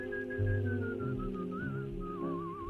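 A thin, wavering whistled tone drifts and warbles continuously over a steady low hum, the pitch sliding and trilling slightly toward the end, with no one speaking.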